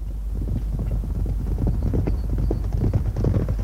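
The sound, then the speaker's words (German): Horses gallop past on the racetrack at the Epsom Derby, south of London, in 1913, hooves thundering in a fast, dense rhythm over a steady low rumble with some wind noise, loud throughout. “Sogar König George und Königin Mary sind dabei und sitzen in ihrer Loge, während die Pferde über die Rennbahn donnern.”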